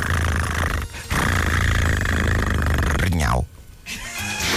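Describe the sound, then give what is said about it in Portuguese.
A man imitates a cat purring while having his hair washed at a hair salon, with a loud, continuous throaty rumble. It breaks off briefly twice and ends with a rising vocal sweep before resuming. “E eu tenho de disfarçar porque estou a ronronar nessa altura.”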